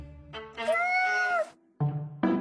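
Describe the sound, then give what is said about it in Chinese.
A kitten meows several times: a long, drawn-out meow that rises and falls in pitch, followed by two shorter, brighter mews. The calls are clear and fairly loud, with no talking. “老鼠们吹得正起劲儿的时候，洞口出现了一只小猫。”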